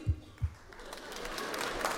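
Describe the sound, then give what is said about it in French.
A couple of low thumps give way to audience applause, women in the audience clapping on a performer's call, a dense, steady patter that builds and holds at moderate loudness until the end. “Par applaudissement, les filles qui se masturbent, allez-y.”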